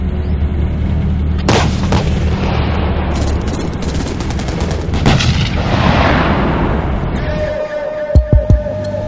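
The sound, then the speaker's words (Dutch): A 60-ton Leopard 2A6 tank of the Royal Netherlands Army fires its 120 mm cannon in a few heavy, booming blasts over a constant loud low rumble, followed near the end by a short run of deep thumps. “De Leopard 2A6 is met zijn 60 ton aan gewicht en 120 mm kanon een waar beest op het slagveld.”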